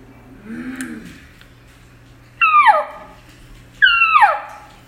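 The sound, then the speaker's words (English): Two loud, sharp calls blown on a mouth hunting call, each a high squealing note sliding quickly downward, spaced about a second apart after a quiet stretch with a faint low murmur. “And that can help you project that call out a little bit better, and, and it, it, sounds really good.”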